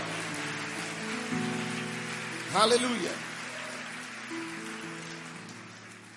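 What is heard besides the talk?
audience clapping hands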